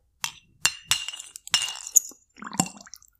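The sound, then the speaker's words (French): A ceramic teacup clinks several times against a saucer or spoon as someone drinks tea, sharp bright taps at an irregular pace, with soft handling and rustling noises in between. “Bah, tu l'as deviné, je suis en train de boire un thé, parce que c'est l'hiver, euh, parce que j'ai envie de boire un thé.”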